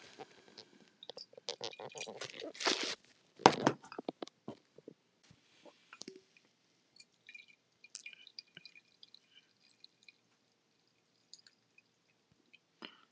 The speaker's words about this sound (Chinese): 好，那我们来出杯。这个杯子放在旁边以后呢，我们整个锅煮奶茶就倒出来了。